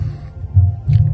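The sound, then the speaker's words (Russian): A deep, muffled heartbeat sound, a symbolic rendering of a living human heart played at a memorial on the site of a former death factory, throbs low and steady, with two heavier swelling beats rising over a continuous bass rumble. No voices are heard. “это символическое отображение биения человеческого сердца, живого сердца.”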